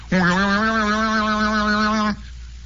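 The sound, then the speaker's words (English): A single pipe organ note, played by pressing one of its keys in a studio, is held for about two seconds, a steady, loud, mid-low pitched tone rich in overtones that starts and stops abruptly, with no voices. “they've got a stop that makes the pipe organ sound like a lady crying out over the moors in her anguish”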